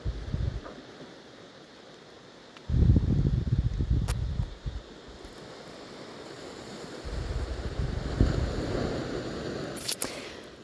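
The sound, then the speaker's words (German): Ocean waves wash in and recede in slow surges, a broad steady roar swelling louder around the middle and again near the end, with some wind buffeting the microphone and no voices. “die große Klammer ist dieses Meer. Mit den Wellen, die einfach rein und raus gehen.”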